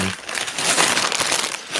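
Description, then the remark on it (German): Old plastic LEGO set bags crinkle and rustle steadily for a couple of seconds as they are handled and opened, a dense crackling texture with no voices. “ja, ich wollte gerade nach den Nummern auf den Tüten gucken, aber wir sind hier noch in einer ganz, ganz anderen Zeit.”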